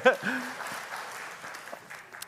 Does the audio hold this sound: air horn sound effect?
no